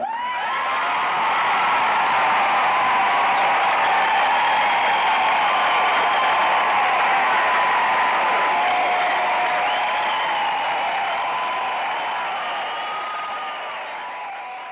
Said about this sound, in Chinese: 给这对夫妇掌声，让他们感受一下。